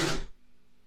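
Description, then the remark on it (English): A dog sneezes once in the background, a short sharp burst of breathy noise that cuts off quickly and leaves quiet room tone, with no talking over it. “If anyone hears that, that was my dog deciding to sneeze in the background.”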